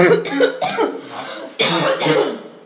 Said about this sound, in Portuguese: Tô engasgada.